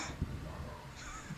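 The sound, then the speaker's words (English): Dogs bark faintly in the background, a couple of short, harsh yaps spaced about a second apart over a low background hum, with no one talking. “I'm sorry if you can hear dogs barking in the background, guys.”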